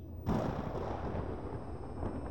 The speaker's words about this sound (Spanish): El cielo está cubierto de una tonalidad gris El paisaje es el mismo, pero la sensación que produce es diferente. Comienzas a escuchar los primeros truenos